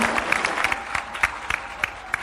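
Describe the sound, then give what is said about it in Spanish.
An audience applauds the children of the creative theatre and photography group of Amalco Volpín after their performance, steadily, a dense wash of many hands clapping with a few sharper individual claps popping out above the steady patter, fairly loud throughout. “El aplauso fuerte, muy fuerte para los niños del semillero creativo de teatro y fotografía de Amalco Volpín.”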